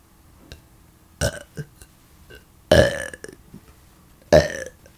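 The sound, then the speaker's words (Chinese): Three loud, forced burps, a short one followed by a longer, croaking, duck-like belch and a final shorter one, separated by brief pauses and small throat noises, with no talking. “我把气挤一挤， 你是鸭子吗？”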